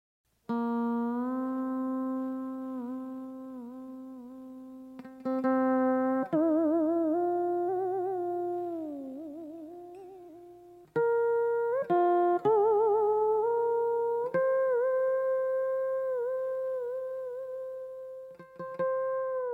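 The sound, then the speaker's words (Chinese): Solo duxianqin, a single-string zither of the Jing people, plays the famous Jing piece 'Bai Yue' (Worshipping the Moon): a slow, mournful melody of sustained notes that swoop and bend in pitch, with wavering vibrato and occasional plucked attacks; no voices. “刚刚你听到的是由独弦琴演奏的京族名曲《拜月》。”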